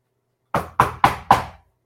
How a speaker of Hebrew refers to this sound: את שומעת את הנקישה, הכל בסדר.